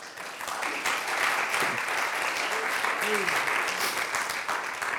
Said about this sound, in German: Ein Applaus